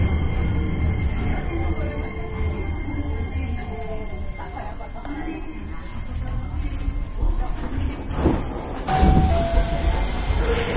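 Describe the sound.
A Hankyu 9300 series train on a Kyoto Line limited express service from Kawaramachi to Umeda runs with a steady low rumble and rolling wheel noise, a brief sharp squeal rising near the end; faint voices murmur under the continuous drone.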